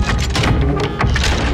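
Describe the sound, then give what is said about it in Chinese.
A hunter's iron cage trap slams shut with a loud, heavy crash, followed by dense rattling and clanging that stays loud for over a second, with several sharper jolts along the way. No one speaks. “砰的一声，铁笼用力关了起来。”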